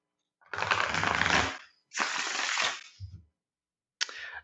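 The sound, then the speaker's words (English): Shuffling of a deck of tarot cards for a reading, in two long riffling bursts, each about a second, then a brief softer shuffle, with no talking over it. “all right so i'm gonna shuffle a little bit”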